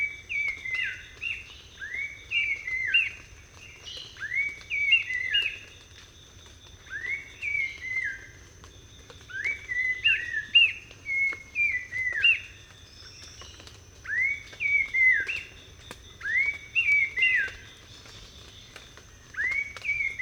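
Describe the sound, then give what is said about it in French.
An Abbott's babbler, a songbird, sings repeated short, clear whistled phrases in a steady rhythm in jungle undergrowth in Cambodia at about 6:10 in the morning, with a faint high insect-like hum and a low background rumble; no one speaks. “Aujourd'hui, enfin ce matin, là il est à peine 6h10 du matin, je suis en compagnie de l'acalate d'abot, un oiseau, un passeriforme, hein, donc un, oiseau chanteur, qui euh, chante dans le sous-bois de la jungle”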